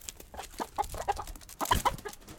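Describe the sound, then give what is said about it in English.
A mother hen clucks in a quick, uneven series of short, throaty notes, fairly soft, ending in a slightly louder cluster of clucks; no one speaks. “The metaphor he chooses is instructive a mother hen whose heart longs for her children.”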